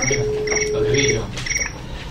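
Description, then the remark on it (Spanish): A cricket-chirping phone ringtone plays while a phone places a call, in rapid, repeating bursts of high trilling chirps, steady, with a faint hum underneath and no talking. “Ya está llamando aquí mis grillos.”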